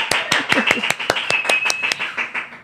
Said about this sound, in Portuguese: Minha gente, uma salva de palmas.